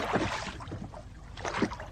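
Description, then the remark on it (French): Water splashes and sloshes as oars dip in two strokes, with a steady watery wash and faint wind in between, from rowboats on Lake Doménil, a 12-hectare lake. “Et puis dans le lac, on peut y apercevoir des barques.”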